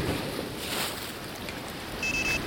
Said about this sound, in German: Vielleicht sollte ich doch einfach nur mal dem Meer zuhören und einfach entspannen, ja. Diese Ruhe ist schon sehr angenehm.